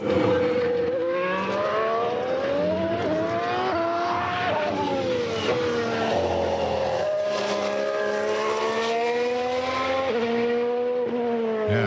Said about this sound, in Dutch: Nou, we beginnen met de Formule 1 natuurlijk, want het nieuwe seizoen begint. De bolides zijn weer op de baan.